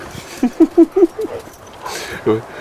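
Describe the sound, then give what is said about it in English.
A small female dog named Miss Dizzy, owned a little over a year, moves about, making a quick run of five short, soft thumping yips in steady rhythm, then a pause before one more similar burst over faint background murmur. “Well, this little dog, we only had her a little over a year, and boy, she is not afraid of anything.”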